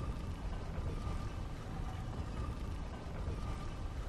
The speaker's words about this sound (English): Oh, that's nice. I really like that sound. The door sliding down sounds like stone sliding on stone a little bit. It's very nice.